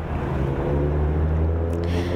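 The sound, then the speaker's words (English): Noisy street-corner ambience at the corner of Pleasant and Water, dominated by a loud, steady low engine rumble, like a vehicle idling, droning continuously with no clear voices. “So now I am talking to you on this somewhat noisy corner where people sitting on their porches are yelling, I like your dog!”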